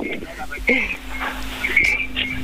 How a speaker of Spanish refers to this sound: Hay eco, hay eco, eco.